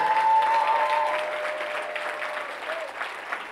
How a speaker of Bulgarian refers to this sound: Хайде ръкопляскай, ако става дума за теб.